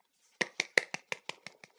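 Hands clapping in a quick, steady run of about eight sharp claps, evenly spaced and fairly crisp, with no voices over them.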